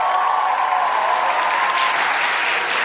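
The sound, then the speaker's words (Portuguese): Steady applause from an audience, a dense crackle of many hands clapping at an even, sustained loudness throughout, with no voices rising above it. The audience is applauding the musical direction, a singer's band leader. “E vamos aplaudir também ali na direção musical, líder da banda do …, ….”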